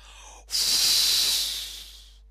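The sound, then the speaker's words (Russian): A voice imitates a wolf blowing hard at a house with a straw roof for the second time: one long, loud, breathy whoosh of air lasting nearly two seconds, rising sharply and then trailing off, with no talking. “Волк еще раз глубоко вздохнул и дунул во второй раз.”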